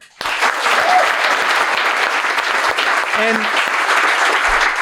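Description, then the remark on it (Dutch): An audience at a live show in Doemler breaks into steady, sustained applause for the bar staff, a dense wash of clapping that starts abruptly and holds loud throughout, with a brief vocal sound or cheer rising partway through. “mag ik sowieso ook heel de applaus voor de mensen van de bar.”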